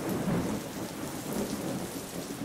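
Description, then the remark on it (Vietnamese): Steady, heavy rain hisses across the whole clip while low, rolling thunder rumbles underneath, holding a fairly constant loudness with no voices present. “Sau khi người họ Kim rời khỏi thuyền, sấm chớp dường như ít hơn một chút.”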